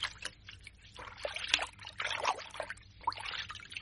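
Lukewarm water pours and splashes into a bathtub, a continuous gurgling rush with irregular louder bursts and no voices.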